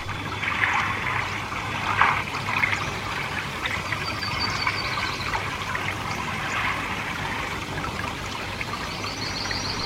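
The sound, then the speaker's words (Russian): A babbling stream gurgles steadily for the whole stretch, even in level, with small splashes and bright trickling sparkle on top and no voices. “Шум дождя, плеск ручья, пение птиц и так далее.”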